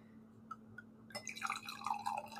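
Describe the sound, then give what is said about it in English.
After a few faint drips, Pinot Noir, a light red wine, is poured into a glass in a steady splashing stream, with the bubbling pitch rising as the glass fills. No voices. “Okay, pour it in there.”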